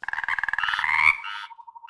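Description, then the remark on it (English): Toads croak loudly in a rapid, pulsing trill that swells into a dense chorus, then thins to a quieter run of regular croaks. No one speaks. “No one was allowed to come in except for his beloved toads, who jumped in and out of the room's window throughout this period, and loud croaking noises were heard constantly from the room.”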